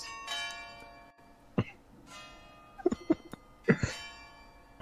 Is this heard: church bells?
yes